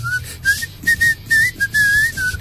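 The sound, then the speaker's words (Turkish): Someone whistles a short melodic phrase, clear, the pure tone sliding between a few notes in quick breathy bursts with brief gaps, over a low background hum. “Sen yatay ıslık çalsana bak.”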